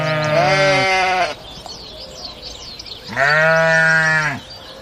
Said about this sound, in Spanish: Aquello estaba sucio, por ahí estaban solamente las ah. ovejas, cabras, nadie lo visitaba.